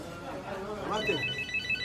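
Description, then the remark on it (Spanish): A telephone rings with a high, steady electronic trill that begins about halfway through and repeats in short pulses, while a voice murmurs underneath at moderate volume. “Suena el teléfono, el pedido pasa a un Excel con una aplicación”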